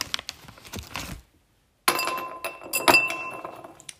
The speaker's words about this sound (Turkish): Benim kullandığım bardak ve buz e, ikilisine baktığımız zaman bunun için sadece iki tane buz koymam yeterli olacak. Koyuyorum.